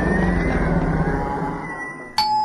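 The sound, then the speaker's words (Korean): A doorbell chime sound effect rings out clearly and loudly right at the end, cutting in after a long rumbling, watery noise fades away. No one speaks. “손님이 왔어요, 여러분.”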